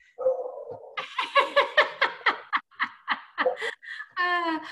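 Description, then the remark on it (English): A dog makes a quick string of high, yelping vocal bursts in an uneven rhythm, ending in a drawn-out whine, with no talking over it. “Uh oh, got, got my doggy.”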